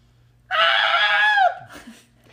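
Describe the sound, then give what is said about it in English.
A single loud, sustained human scream for help, about a second long, holding a strained high pitch before sliding downward and breaking off, followed by faint rustling. “This scream is incredible. It is booming and echoing throughout the entire valley.”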